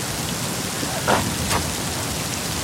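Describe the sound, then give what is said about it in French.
Steady thunderstorm rain hisses evenly throughout, heard from a cave where hikers took shelter, with a couple of brief louder spatters standing out partway through; no voices are heard. “papa, maman, on a commencé une randonnée, mais en fait il y avait de l'orage.”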